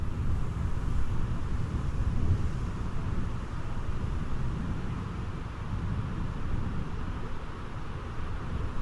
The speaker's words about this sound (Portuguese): Podemos escutar também o som de suas águas caudalosas aumentando a intensidade pouco a pouco.